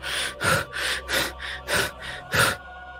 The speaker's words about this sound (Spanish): Una luz que corre. Parece perseguir algo. Tiene mucha prisa y hemos podido escuchar esa respiración.